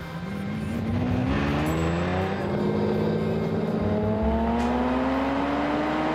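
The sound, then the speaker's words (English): A 12-cylinder car with a five-speed gearbox at high speed climbs steadily in pitch as it accelerates hard, its loud, continuous engine roar rising smoothly with no gear change and no voices. “You would normally shift into fifth at about 140 miles an hour.”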